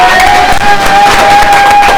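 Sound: audience applause and cheering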